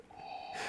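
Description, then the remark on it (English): A Darth Vader novelty bottle opener plays a brief mechanical breathing sound as a beer is cracked open, a steady electronic tone that swells into a loud, hissing rasp, fairly quiet and alone with no talking. “Sorry, I don't know if you can hear my Darth Vader um, bottle opener in the background.”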